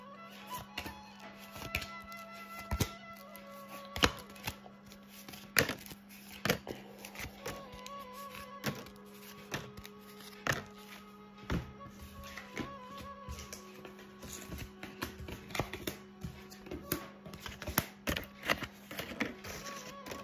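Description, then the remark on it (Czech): Playing cards being shuffled during a card reading of the energy for the year 2023: irregular bursts of crisp snapping and riffling clicks for about twenty seconds, with a soft steady hum and quiet sustained tones underneath. “A já už se dívám na vaši fotku, míchám u toho karty a my se spolu podíváme, jaká bude pro vás energie v roce 2023 plus eh, leden a únor 2024.”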